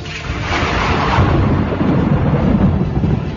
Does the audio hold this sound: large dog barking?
no